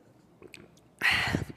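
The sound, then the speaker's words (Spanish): Faint small clicks, then a loud slurping last sip from a little cup that lasts about half a second, wet and airy, ending with a light click as the cup comes away. “yo creo que es momento de dar el último trago a la tacita.”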